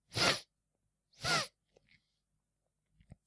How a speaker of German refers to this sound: schniefte einmal kurz